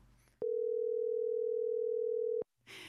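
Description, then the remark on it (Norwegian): A steady, loud telephone dial tone hums continuously for about two seconds while a phone call is being placed, starting and stopping abruptly, with brief faint noise on either side. “Eh, så nå skal vi ringe til eh,”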